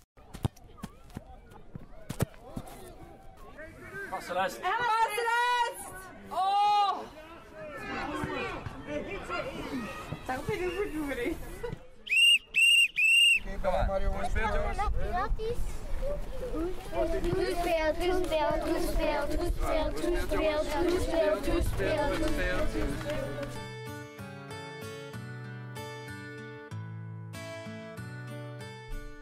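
Outdoor amateur football match of SV Anzegem in the cold: a crowd chatters and calls out, a sharp referee's whistle blast cuts through midway, and running feet and ball thumps sound before music takes over.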